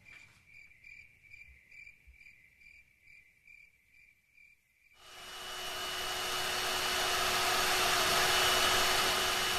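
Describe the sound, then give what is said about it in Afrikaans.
Rhythmic, cricket-like chirps pulse quietly for about five seconds, then a kitchen mixer abruptly starts, its loud, steady whirring motor with a constant hum continuing to the end. “Kan die menger nog lank loop?”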